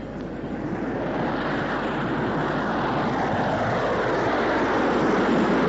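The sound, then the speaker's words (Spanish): A squadron of airplanes drones overhead, heard as people are about to enter a house, a dense, steady roar of engines that swells slightly louder over a few seconds, with no voices. “Estábamos por entrar en la casa cuando oímos un ruido de aviones.”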